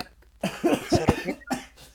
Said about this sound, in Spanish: si toses, yo no puedo hablar.